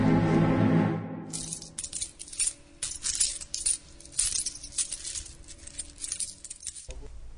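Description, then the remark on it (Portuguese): Thirty silver coins, paid to Judas, clink and jingle together in a busy, bright metallic shower for several seconds, fairly loud, with a low tone fading beneath at the start and no voices. “E eles lhe pagaram 30 moedas de prata.”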